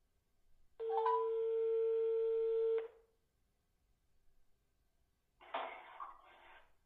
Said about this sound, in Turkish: Şimdi ona telefonla bağlanacağız.